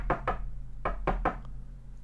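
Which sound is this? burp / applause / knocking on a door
knocking on a door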